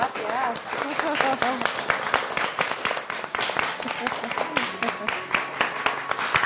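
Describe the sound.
A big round of applause from the audience at a program recording in Chapinería fills the whole stretch, dense, steady clapping from many hands, fairly loud, with a few voices and murmurs mixed in underneath.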